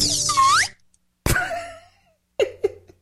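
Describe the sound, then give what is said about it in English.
A slide whistle swoops down and back up in one quick, bright glide, followed by a sharp percussive hit and two short hollow pops. No one speaks. “Maybe I'll do a slide whistle for the highest okay. order.”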